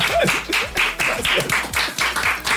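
A team claps in a steady, rhythmic beat of sharp bursts, with cheerful voices whooping and calling out over the applause throughout.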